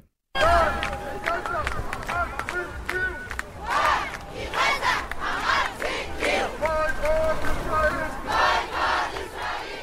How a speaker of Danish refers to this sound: Børn i Gaza har ret til et liv, bliver der råbt her. Og så bliver der opfordret til at boykotte Israel. Og i Aarhus, Odense, København og Esbjerg var der de her demonstrationer til støtte for palæstinenserne.